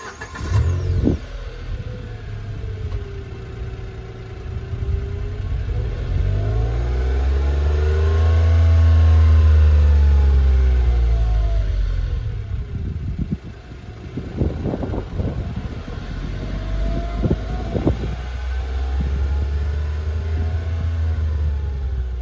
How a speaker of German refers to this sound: Und dieses Auto ist besonders preiswert. Ja. Und äh, damit wir in gewohnter Reihenfolge starten, gibt es jetzt erstmal ein bisschen Sound dieses Autos.